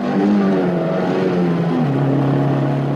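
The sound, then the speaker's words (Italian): A loud, close car engine roars steadily, its pitch dropping briefly as if shifting gears, then continuing to drone on its own for about three seconds. “E sicuramente prende la sua macchina, noi aveva una Spider, forse era una 124 Spider.”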